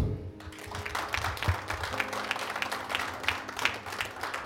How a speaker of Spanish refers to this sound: Amén. a usted un aplauso.